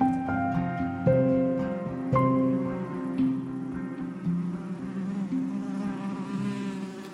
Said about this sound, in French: Les abeilles parcourent les fourrés, butinent les fleurs vermeilles et effleurent légère la surface de l'eau, transportées de je ne sais quelle douceur de vivre, elles façonnent avec art la cire nouvelle et composent leur miel.